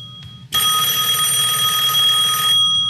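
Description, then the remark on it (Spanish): A loud telephone ring: one steady, bright electronic ringing tone lasting about two seconds before it stops abruptly, over a low background hum. “No, sí, ya, ya escuché que es el teléfono, pero la vamos a tomar.”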